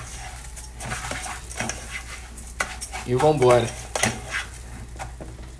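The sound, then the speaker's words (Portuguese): Rice and garlic sizzle and hiss in a pan as they are sautéed and seasoned, the garlic starting to burn, while a utensil scrapes and stirs with clinking strokes; a person speaks briefly over the cooking sounds. “Agora a gente vai refogar e vai dar um tempero nesse arroz aqui.”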